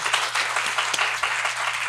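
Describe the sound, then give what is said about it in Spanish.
A crowd applauding steadily, a dense crackle of many hands clapping at once, holding an even loudness throughout with no voices over it. “Un aplauso, bonito, bonito, bonito.”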